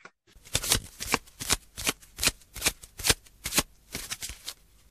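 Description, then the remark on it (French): Tarot cards being shuffled, a rapid series of about a dozen crisp riffling bursts in steady rhythm, with no voices over them. “Je vais quand même te tirer une petite carte pour voir un petit peu, bah, finalement, euh, quel message euh, le tarot aimerait bien nous dire et nous dévoiler par rapport à euh, à ce sujet de bah, le sujet de l'identité et de la définition de soi.”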